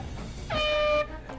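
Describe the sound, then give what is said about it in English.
A single loud buzzer blast played from a recorded intro, a harsh, steady electronic tone lasting about half a second and cutting off abruptly, with no talking around it. “Makes a little buzzer sound.”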